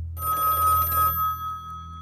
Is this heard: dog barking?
no